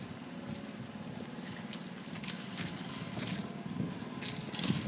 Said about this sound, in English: Oh, I see somebody's. Uh, I think somebody's mowing that lawn. Uh, they've, have got kind of a, a tank of a, of a lawnmower.